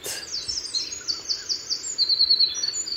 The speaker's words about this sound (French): C'est une expression sonore remplie de sens. Je vous le dis, j'ai beau avoir un parcours scientifique, je suis quand même sensible à certains moments magiques de la nature. Comme ce chant de l'oiseau qui revient dans son territoire.